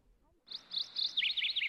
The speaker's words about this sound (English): A robin on a high branch started to sing.